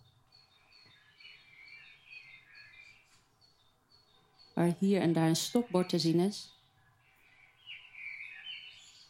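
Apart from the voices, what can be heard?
birds whistling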